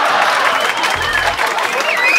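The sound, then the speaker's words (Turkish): Steady audience applause during a broadcast, given for the host's colleagues: a dense wash of many hands clapping at an even loudness throughout, with a few faint whistles and cheers mixed in. “Bu saate kadar yayında gerçeğe yakın şeyler anlatmış olan çalışma arkadaşlarım için bir alkış rica ediyorum sizden.”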